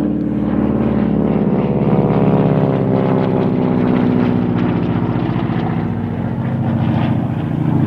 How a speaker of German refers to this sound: das lasse ich drin, das ist cool. Das war irgend so ein antikes äh, US Air Force Flugzeug. Cool.